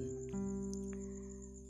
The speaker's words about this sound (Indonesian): di malam yang dingin ini aku sedang duduk sendirian seperti biasa yang aku lewati di setiap harinya dengan ditemani suara jangkrik dan